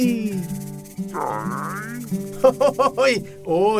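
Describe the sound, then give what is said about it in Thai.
A voice mimics a loud stomach growl of Ling Jo, a hungry monkey, in front of a restaurant: a drawn-out, rough rumbling groan followed by a quick run of short, gurgling bursts and a final groan. “เสียงท้องร้องดังลั่นเลย”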